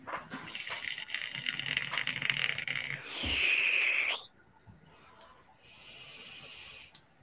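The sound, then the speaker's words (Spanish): Steam blasts out in a sustained hiss that swells into a louder, harsher rush, cuts off, then returns after a short pause as a thinner, higher-pitched hiss. No one speaks. “Le tiró tanto vapor, la dejó congelada.”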